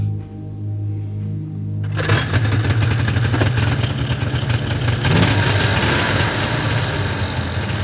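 A snowmobile engine idles with a low, steady hum, then revs up into a louder, rougher roar that keeps running, with no voices; the snowmobile is driven at night in March 1982 across the mountain plateau (vidda) in Norway from Sirmao to a place called Kilash.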